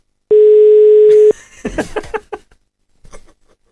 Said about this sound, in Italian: Squilla, ma non risponde ancora nessuno.